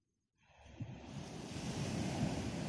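ocean waves

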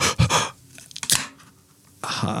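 sneeze

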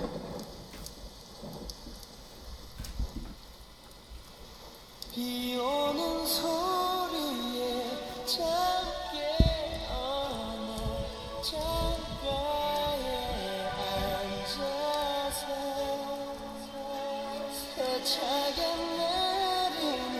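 rain

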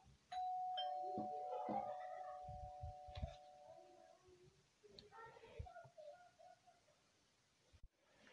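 doorbell ringing

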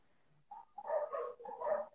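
dogs barking

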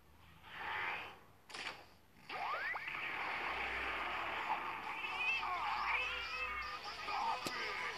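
cat meowing

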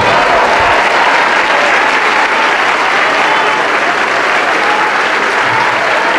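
church audience applauding

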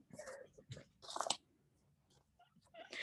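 paper rustling

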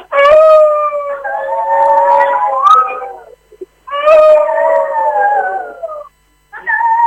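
wolf howling

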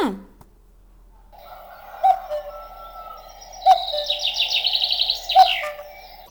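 cuckoo calling

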